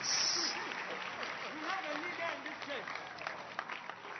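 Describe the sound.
A crowd in a hall claps steadily and densely for several seconds, a continuous wash of hand claps with a voice speaking over the noise.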